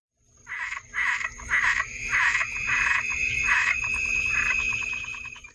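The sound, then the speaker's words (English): A frog croaks in a steady series of short, raspy pulses, about eight in quick rhythm, fairly loud, with a faint high insect-like trill running underneath. “this week's frog”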